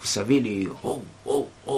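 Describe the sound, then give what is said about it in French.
A voice talks briefly, then mimics a marching chant with three rhythmic, evenly spaced "oh" calls, moderately loud, imitating early-morning joggers calling cadence like soldiers. The joggers were children or teenagers, before sunrise. “C'était le bruit des joggeurs matinaux qui les ont réveillés.”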